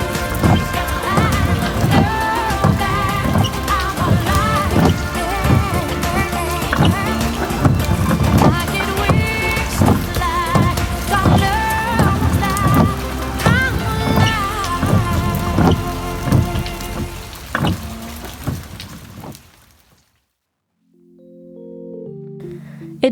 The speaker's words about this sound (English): However, this time when we would listen to it in the car, it was incorporated with the sound of windshield wipers.